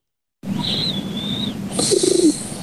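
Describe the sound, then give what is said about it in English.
A brief snore with a warbling, throaty burble that sounds much like a pigeon cooing, rising out of a steady background hiss with no talking. “has another snore. I call this one the pigeon. If this doesn't sound exactly like a pigeon cooing, I don't know what does.”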